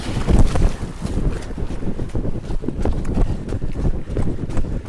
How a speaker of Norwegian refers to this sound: Se. Vi var gjennom en bekk.